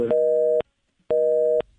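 A telephone busy tone after a dropped phone call with a doctor: two loud, steady electronic beeps of equal length, separated by a half-second gap of silence, with no voices.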